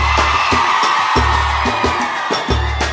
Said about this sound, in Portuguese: O negócio é o seguinte: eu quero ouvir o grito da mulherada primeiro.